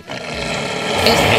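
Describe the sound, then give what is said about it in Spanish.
A loud, rough animal roar, supposedly a wolf, sustained and gravelly for over a second, swelling slightly toward the end, with no voices over it. “¿podemos escuchar el rugido otra vez?”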